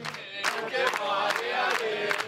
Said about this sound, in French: Des cris d'encouragement, il en faudra de la part des militants.